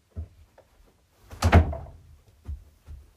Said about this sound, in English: grumpy, angry voice walking slam, and the door is slammed in your face.